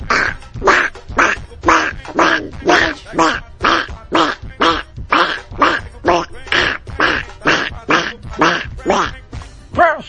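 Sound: imitated duck quacking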